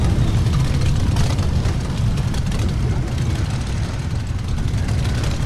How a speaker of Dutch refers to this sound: Aan het geronk hoor je het al. Er staan eh, bijna 400 motoren klaar om te beginnen met de Amsterdamse versie van de Distinguished Gentleman's Ride 2022.